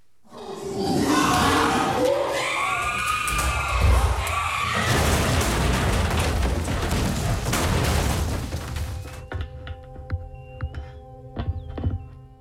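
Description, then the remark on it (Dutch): Two monkeys confined together in a centre fight, shrieking and screaming in loud, overlapping bursts for several seconds, then the commotion drops off to scattered knocks and clattering. “We gaan luisteren naar één fragment waarin twee apen tot elkaar veroordeeld verschrikkelijk ruzie krijgen.”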